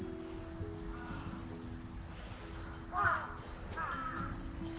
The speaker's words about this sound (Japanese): カラスが飛んだりしてますね。ちょっと今なんかカラスがすげえ気に密集してるんで面白いんでちょっと見てみたいんで、一回すみません。